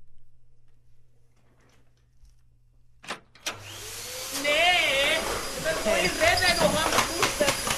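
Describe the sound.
After a few seconds of near silence and a couple of clicks, a vacuum cleaner switches on and roars loudly and steadily as a woman vacuums near the microphones, while a voice shouts over the noise.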